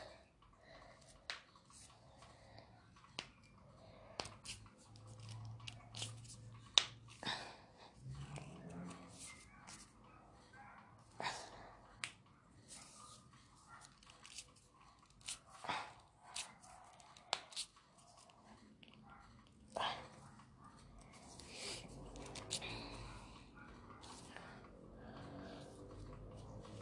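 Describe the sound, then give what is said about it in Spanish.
Knuckle cracking of the fingers: a long series of sharp, dry pops and clicks at irregular intervals, fairly quiet, with soft rustling and handling noise between the cracks. “Escuchen lo relajante que es ver o oír, oír, oír cómo se truenan los dedos.”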